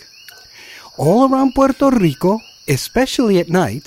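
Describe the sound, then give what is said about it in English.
A steady, high-pitched, melodic whistling chorus of tiny coqui frogs of Puerto Rico fills the background throughout. It starts alone and soft, then continues beneath a person talking. “This is the song of a tiny frog commonly known as the coqui.”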